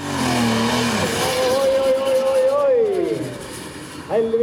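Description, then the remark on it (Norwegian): The 4000-horsepower engine of a pulling tractor roars and revs continuously, spewing smoke, its pitch climbing then dipping, loud, with a brief surge near the end. “Men det som foregår her, er at den traktoren har 4000 hestekrefter.”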